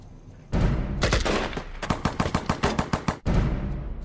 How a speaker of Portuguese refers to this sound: Mas o mais importante é que não tenham medo dos ruídos dos tiros. O ruído não mata,